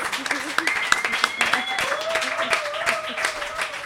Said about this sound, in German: vielen Dank an die Bush-Babys. Einen Applaus.